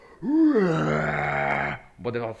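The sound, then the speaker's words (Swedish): A person imitates the death roar of a dinosaur, the Indominus Rex, with a loud, drawn-out groaning wail that swells and holds for over a second, followed by a shorter, rougher second burst. “liksom det här, det här ljudet när dinosaurierna skriker, liksom den här Indominus Rex, liksom, han står i djungeln och så bara...”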